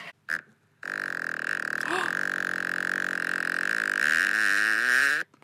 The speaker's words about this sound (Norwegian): Ok, Fjerde og siste avgjørende promp.